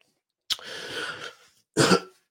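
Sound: cough and throat clearing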